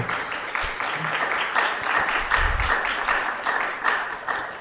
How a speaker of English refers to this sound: I don't know if you can hear, but the, the audience is clapping.